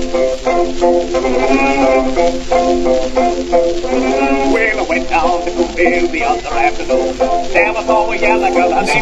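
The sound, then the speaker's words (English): The Ice Cream Man song, an ice cream truck jingle, plays as a steady, tinny recording, its bright tune filling the whole stretch at constant loudness, with a voice singing or speaking along over the melody, including the words 'I scream' and 'watermelon'. “This is the Ice Cream Man song.”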